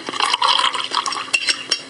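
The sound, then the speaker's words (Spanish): Water pours steadily into a cup to prepare decaffeinated Nescafé Clásico instant coffee, a bright continuous splashing stream lasting about two seconds, with a couple of brief sharper splashes near the end. No voices. “Mm, y así es como se prepara el nuevo Nescafé clásico sin cafeína.”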